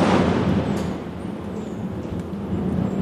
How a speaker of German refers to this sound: das war, das war direkt. Das war, wir sitzen direkt im Gewitter, ja. Das war direkt. Wir sind sogar schon reingegangen, damit es nicht mehr ganz so knallt. Ja, live, live auf Band ein Blitzeinschlag.